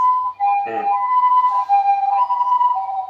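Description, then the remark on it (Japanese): An ambulance siren steadily alternates between two tones, high then low, as the ambulance passes by, at a fairly strong level with no talking. A brief rough burst of noise cuts in near the start. “救急車が通ったな結構聞こえる”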